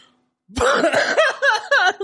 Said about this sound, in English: Fuck, that made me cough.